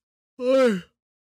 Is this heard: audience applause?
no